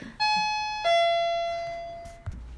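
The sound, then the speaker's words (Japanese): A two-tone doorbell chime rings once, a bright higher note followed by a lower one that rings out and slowly decays, clear, with no talking over it, rung by an arriving parcel delivery. “はい今ピンポンが鳴ったのでごめんなさいねすいませんでした宅急便が来ましたタイミングよく来たね”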